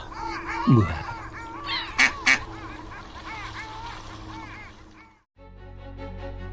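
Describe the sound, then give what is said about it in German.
A busy flock of ducks being fed pieces of bread quacks and honks in overlapping calls, with a couple of sharp louder squawks near the start. Then the birds cut off and a brief musical tone follows. “Äh noch ein Stück Brot für die Enten”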